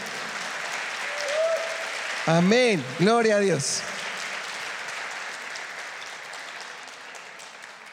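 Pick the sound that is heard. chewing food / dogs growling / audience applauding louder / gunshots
audience applauding louder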